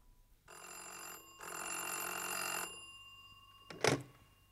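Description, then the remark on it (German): A telephone bell rings loudly in two bursts, a short one then a longer one, followed by a brief clunk like a receiver being picked up, as a call comes in to a director in a studio. No one speaks. “nicht persönlich, sondern ruft im Studio den Regisseur an.”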